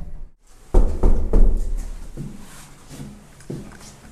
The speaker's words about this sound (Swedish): Första dörren är ingen som öppnar. Nej, vi hör röster inuti i alla fall så vi får väl knacka på en gång till och se.